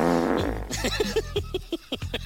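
A long, sputtering fart: a low droning blast that breaks into a rapid series of short pops and squeaks, fairly loud, with no talking over it.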